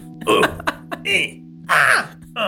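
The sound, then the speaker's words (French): A voice actor performs a quick series of short pained cries and grunts, about five sharp bursts of varying length, fairly loud, voicing a video game character taking hits such as a grenade or being struck. “Par exemple, quand on, va me faire une, faire une vingtaine de cris en fonction de s'il se prend une grenade, s'il se fait taper, ben ça va du Ah”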